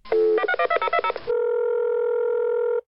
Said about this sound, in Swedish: Jag ringer.